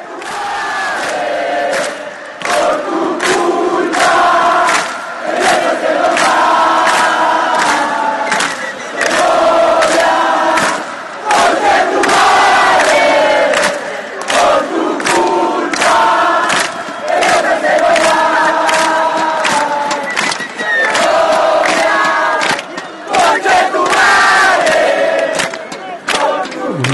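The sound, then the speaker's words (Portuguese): A large crowd of football supporters in Chile chants loudly in unison in a stadium, the common insult chant 'Segovia conchetumadre', a rhythmic, repeated taunting refrain broken by short pauses between phrases, continuous throughout. “Então a gente vai ouvir agora Segovia Conchetumadre, que é o xingamento mais comum Opa!”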